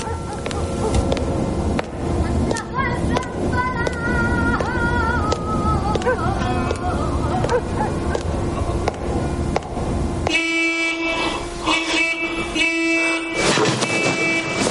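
A car horn honks in sustained, loud blasts near the end, after a stretch of busy, cluttered background noise with shifting tones.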